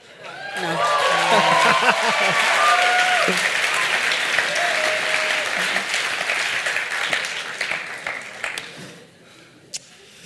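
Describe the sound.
Loud, dense audience applause bursts in and holds steady for several seconds with scattered voices and cheers mixed in, then thins out to a few last claps and fades away.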